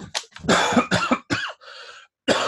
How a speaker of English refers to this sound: Shit, I was trying. I was trying to drink before I started coughing. I know what that's like. Drinking sips of water helps your throat.